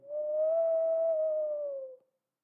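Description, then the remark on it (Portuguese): A voice imitates howling wind with one steady, hollow "oooo" tone held for about two seconds, its pitch swelling slightly and then sinking before it stops abruptly. No other sounds. “Então é o uivo.”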